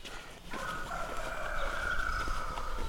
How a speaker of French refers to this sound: Un coq qui s'exprime à ce temps-là.